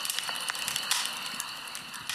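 A campfire crackles steadily, with irregular sharp pops and snaps over a continuous hiss of burning wood. No voices.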